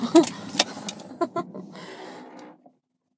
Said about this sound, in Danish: ja, der slukker vi bilen.